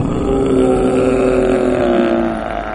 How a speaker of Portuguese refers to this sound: vocês começam a ouvir um lamento, um lamento monstruoso